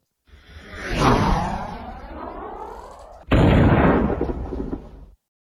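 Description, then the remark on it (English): A loud cinematic transition effect: a sweeping whoosh that rises and fades, then a second booming burst that cuts in abruptly and rumbles before stopping dead. No voices. “I'm going to play like a little bit of a transition sound”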